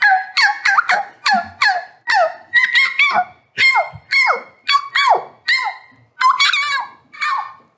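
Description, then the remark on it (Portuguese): A woman imitates a pinscher dog's yapping as a show of her talent: a quick, steady string of about fifteen shrill, high-pitched barks, loud, with short gaps between them and no other talk. “Amiga, tu era um pincher, né?”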